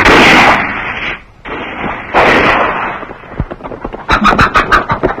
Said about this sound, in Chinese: 雨来刚到堂屋，见几十把雪亮的刺刀从前门进来，他撒腿就往后跑，背后咔嚓一声枪声响。